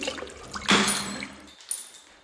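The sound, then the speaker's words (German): A sudden splash as a child's swinging arm knocks over a full glass of water at the breakfast table, liquid gushing out for under a second before fading, with a faint clink shortly after; fairly loud, no voices. “Paul schwingt die Arme vor Freude auf die Seite und trifft das volle Glas Wasser.”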